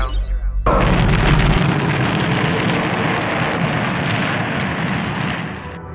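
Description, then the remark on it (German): A rocket blast-off effect: a short, pulsing low rumble bursts into a loud, wide roaring rush that holds steady for several seconds before easing slightly at the end. No voices. “Mission Control, ready for takeoff. 3, 2, 1, 0.”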